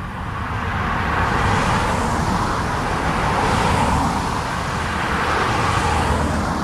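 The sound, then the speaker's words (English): Steady traffic rumbles along a downtown Gainesville street past bars and nightclubs, with several cars swelling past one after another in broad whooshing waves over a constant low road hum, no voices. “As cars drive by downtown Gainesville, past the bars and nightclubs, a little community center is making big improvements.”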